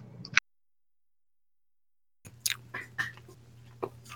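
Close-up chewing, with moist crunchy mouth noises in an irregular run after a brief pause of silence, plus a faint low hum underneath. No one speaks.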